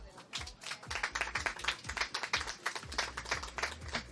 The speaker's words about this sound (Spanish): Un aplauso, por favor.